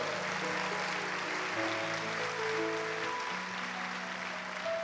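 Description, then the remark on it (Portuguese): A large church audience applauds to the Lord continuously at a steady, fairly loud level while sustained keyboard or organ notes play underneath; nobody speaks. “Um aplauso ao Senhor.”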